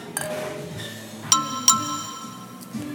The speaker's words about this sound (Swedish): Ja, men vi är i alla fall glada för att vi var här och jag tycker att vi bjussar på en eh, liten skål. En liten skål.